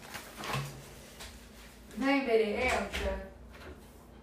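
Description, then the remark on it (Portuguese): A door is opened with a couple of soft clunks and rattles to let in Berenice, who was scratching at it, while a woman calls out briefly over a quiet hum. “a Berenice tá arranhando a porta. Eu vou abrir pra ela, gente.”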